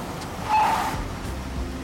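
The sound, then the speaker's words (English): Several cars pull up on the grounds of a camp in the morning, their engines a steady low rumble with a brief higher whine about midway through. Nobody speaks. “When several cars pull up on the grounds of New Beginnings in the morning, campers and counselors don't know what to make of them.”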